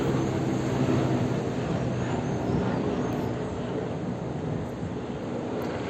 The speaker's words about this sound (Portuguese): E o helicóptero passando.